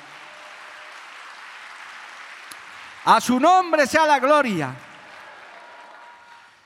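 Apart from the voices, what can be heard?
applause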